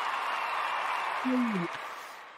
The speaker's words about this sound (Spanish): Desde este espacio, un aplausote al deputy. Es más, se los voy a poner porque se los ganó, pero bien ganado.